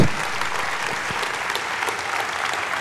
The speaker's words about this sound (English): Abs- absolutely inspiring. A big round of applause for Jennifer Keesmaat.